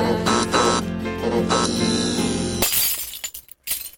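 A sustained musical passage cuts off abruptly into a loud, bright crash of glass shattering, followed by scattered tinkling fragments that settle over the last second.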